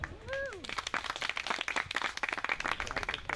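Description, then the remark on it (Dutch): Dense applause from an audience after a discussion following a documentary screening, many hands clapping rapidly and steadily throughout, loud, with a brief whoop or whistle near the start. “Ja, dat applaus was voor u”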